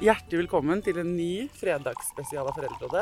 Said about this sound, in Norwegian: Den lyden der, det er varm kaffe fra en termos som helles i en kopp.